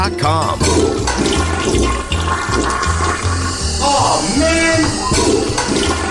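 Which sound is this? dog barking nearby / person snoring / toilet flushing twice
toilet flushing twice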